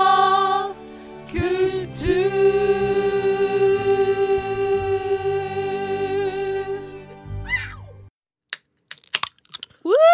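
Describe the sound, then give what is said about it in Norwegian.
Soda cans cracking open on Radio Nova's Friday morning show Skumma kultur: a few sharp pops and brief fizzy clicks, heard just after a stretch of sustained music ends. “Hvis ikke du skjønte, så åpna vi brusbokser.”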